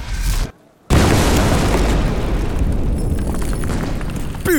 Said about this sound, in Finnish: Ammunta alkaa ja sitä myötä keihin räjähtää myös ensimmäinen ampujen edessä oleva tulenosoituspanosten setti.